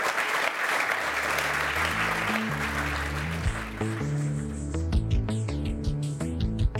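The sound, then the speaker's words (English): An audience at a Climate One conversation claps steadily at the end of a lightning round, a dense wash of applause that gradually fades as a music bed rises and takes over, with no one talking. “Let's give them a round for getting through the gauntlet.”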